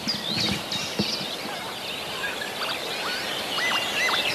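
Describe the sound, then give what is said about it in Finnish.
Lapwings call repeatedly with swooping, wheezy cries while chasing crows away from their territory, recorded by a microphone at the edge of a field, over a busy field backdrop, with a couple of rougher crow-like calls early on and steady outdoor ambience throughout. “Siinä on taas sama tilanne. Töyhtöhyppä jahtaisi varikset pois omalta alueelta.”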